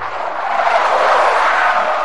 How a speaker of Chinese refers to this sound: 黑色的小卡车突然来了一个急刹车，他笑着打起招呼。